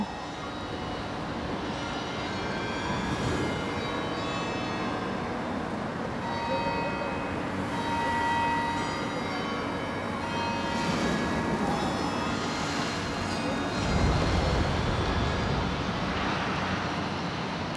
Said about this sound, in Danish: vi lige hørt kirkens helt unikke klokkespil kl. 12.